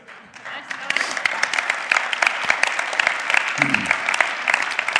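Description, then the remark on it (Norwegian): An audience applauds together, a dense, steady wash of many hands clapping that fills the whole stretch with little variation in loudness and no talking over it. “Du, eh, det tar for mye, klappe, for mye, tid å klappe, så vi gjør en avtale.”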